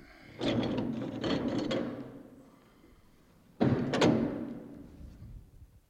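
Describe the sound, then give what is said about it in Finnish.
A door opens with a rattling, clattering latch and a hollow thump as someone enters, then after a short pause a second louder knock-like clunk rings out and slowly fades. “Perskitti, nyt joku tulee. Mutta aakasepas vaan ovi, niin...”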